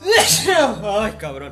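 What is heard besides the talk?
sneeze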